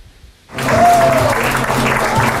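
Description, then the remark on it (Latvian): Jūrmalas Spartaks football fans cheering loudly in a stadium during a match against FK Metta: after a brief hush, a dense, roaring crowd noise bursts in and holds steady at full volume, with a short whistle-like tone rising above it. “Bet skaļi bija. Jūrmālas Spartaka atbalstītājiem te arī drusciņi varam paklausīties, ko es šodien dzirdēju stadionā.”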